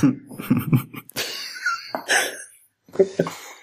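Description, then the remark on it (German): A loud throat-clearing cough with a few rough, bursty hacks in quick succession, followed by a brief pause and a last short grunt. “für sowas kann man bitte mal die Räuspertaste benutzen.”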